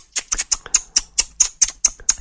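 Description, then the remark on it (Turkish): Two people click their tongues at the same time in overlapping tut-tut sounds, about a dozen sharp clicks in a loose, uneven rhythm, with no talking. “bir de hep birlikte olunca bak şöyle bir ses oluyordur. Sen de cık cıkla ben de aynı anda.”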